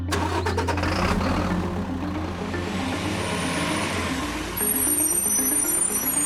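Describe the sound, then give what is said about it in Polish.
A truck engine cranks and catches, then settles into a loud, steady rumble that runs throughout with no voices present. “Jak się okazało w toku śledztwa, poprzedniej nocy na teren budowanego kurortu przyjechały nieznane ciężarówki.”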